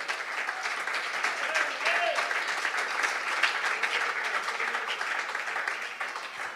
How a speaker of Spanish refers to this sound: Puede brindarle ese aplauso con su corazón en esta hora.